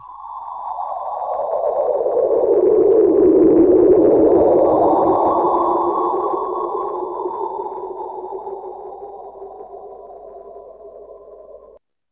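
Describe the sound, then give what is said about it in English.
An eerie sonified black hole echo: low, sine-like tones that slide and waver in pitch, swelling to a loud peak in the first few seconds, then slowly fading, with a faint high whine above. “Yeah, I think this might be it that was supposed to be an echo of black hole”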